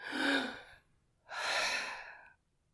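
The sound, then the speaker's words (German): One deep breath drawn in, then a pause, then a long breath let out, both clearly audible, with no talking. “Dann kannst du einmal tief Luft holen, atmen”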